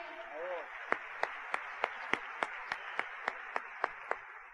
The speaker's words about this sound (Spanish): para quien le pido un fuerte aplauso, porque ayer se me olvidó de edificarlo a él.